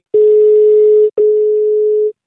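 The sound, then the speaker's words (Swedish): A telephone ringing tone heard while a call connects: two steady, loud electronic beeps of about a second each, split by a brief gap, with no voices. “Vi det, kollar, vi ringer upp hans...”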